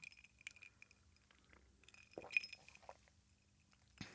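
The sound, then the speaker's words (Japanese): A few light, ringing clinks of glasses of Iichiko shochu mixed with green tea touching in a toast, quiet, with soft handling noises and brief thuds in between and no one speaking. “いいちこと緑茶で作った緑茶杯いい茶コを片手に対談がスタートです乾杯。”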